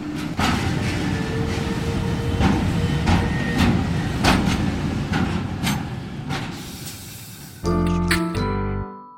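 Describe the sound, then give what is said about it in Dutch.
A freight container train on the rail line to Tilburg, running to and from China, rumbles steadily along the rails with repeated metallic clanks and squeals at irregular intervals, ending in a short burst of harsher mechanical noise. “En als de trein dan is leeggehaald, de containers zijn er af hier, dan worden er weer nieuwe containers opgezet.”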